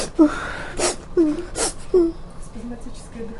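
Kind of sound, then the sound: vocal imitation, voice imitating crying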